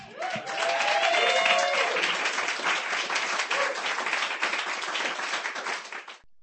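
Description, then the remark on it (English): An audience at a poetry performance night breaks into steady applause, dense clapping from many hands for several seconds, with a few cheers and whoops rising over it before it quickly dies away. “That's some mighty good clapping poetry tonight.”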